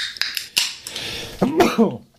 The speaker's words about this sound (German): Muss ich auch direkt niesen. Ja, hopp zu. Äh, Gesundheit meine ich. Ja, danke.